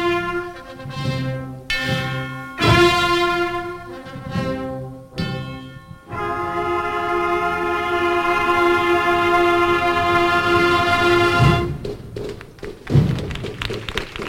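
A processional march played by a loud brass band: sustained, swelling chords that shift in short phrases, then a long held note followed by heavy drum beats, with no talking.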